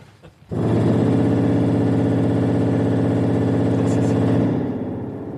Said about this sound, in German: Nun, wenn man sich vorstellt, eine Pfeife, die fast 15 Meter lang ist, die macht dann ja besonders tiefe, dunkle Töne. Kann man die mit dem menschlichen Ohr noch wahrnehmen? Oh ja, die kann man natürlich wahrnehmen.